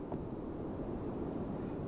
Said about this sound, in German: Jetzt, ich höre ein Rauschen vom Auto. Vielleicht geht's jetzt.